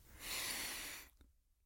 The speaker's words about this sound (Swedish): Han tömmer hela sin repertoar innan han åter knallar in i bussen, sätter händerna mot ratten och bara andas en stund.